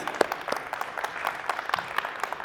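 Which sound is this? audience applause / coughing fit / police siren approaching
audience applause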